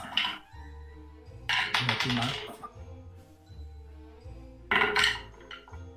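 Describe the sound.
Many dice, rolled for a tabletop role-playing game check, rattle and clatter onto a hard surface in three quick bursts, the loudest near the end, while low voices murmur underneath.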